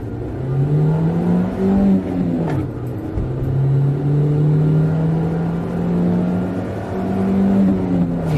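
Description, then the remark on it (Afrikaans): The 1.6-litre petrol engine (69 kW, 128 Nm) of a Nissan NP200 pickup with the ICE package drones steadily during a test drive, its pitch rising and falling smoothly through gear changes, with a constant low rumble and road noise and no voices. “my toetsbakkie is die 1.6 petrol”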